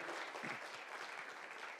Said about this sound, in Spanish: Amén y amén. Dele un fuerte aplauso al Rey de la Gloria.